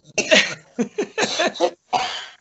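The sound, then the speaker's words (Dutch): A fit of sneezing: a half-dozen loud, explosive bursts in quick, uneven succession, with brief gaps between them and no talking. “gezondheid”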